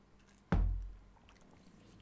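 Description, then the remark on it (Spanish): A single sip from a drink, a sudden wet gulp with a low thump that fades over about half a second, set against quiet background and no talking. “Salud, mi gente, a todos. Mm, mira qué lindo ese trago.”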